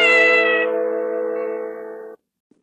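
A cat lets out one long, loud, drawn-out meow lasting about two seconds, holding a steady, strained pitch before cutting off abruptly into silence.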